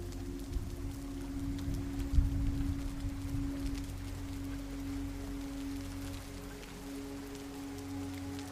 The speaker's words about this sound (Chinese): 忽然，几颗大大的雨滴落在了你的手上和额头上，随即四周便传来了人们下雨了的呼声。